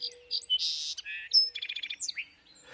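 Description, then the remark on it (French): A wild song sparrow (Melospiza melodia) on small islands in British Columbia, Canada, sings a bright, varied phrase: buzzy notes, then a quick run of evenly spaced trills and a closing sweep, clear with no one talking. “Ce sont les bruyants chanteurs de l'espèce Melospisa melodia.”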